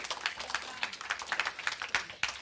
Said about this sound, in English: I feel guilty getting that clap, to be honest, but we should all be, we should all be stepping out.